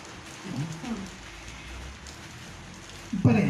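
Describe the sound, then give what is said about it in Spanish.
Steady rain hisses across the whole stretch, a soft, even wash of patter with a voice briefly speaking near the start and again at the end. “La lluvia va a seguir, así que no nos preocupemos.”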